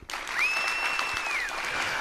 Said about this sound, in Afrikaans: Hulle juig van vreugde.